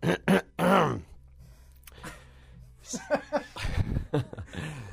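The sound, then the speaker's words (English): A man, a band member being interviewed, clears his throat with a few short, gruff bursts, followed by a pause and then some muffled vocal sounds. “He's so busy he didn't even have time to clear his throat before this interview.”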